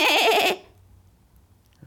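A young goat gives a single loud, quavering bleat lasting about half a second, its high wavering pitch trembling throughout, then the sound stops and near silence follows.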